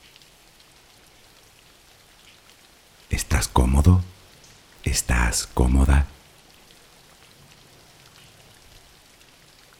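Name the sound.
rain falling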